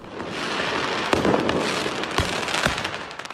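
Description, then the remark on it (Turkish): Fireworks fired by a group of about 40 people at a police station in a town southeast of Paris, France, going off in a rapid crackling barrage, with several sharp, loud bangs punctuating a steady hissing, popping roar. No one speaks. “Bu görüntülerde Fransa'dan havai fişeklerle hedef alınan yerse bir polis karakolu.”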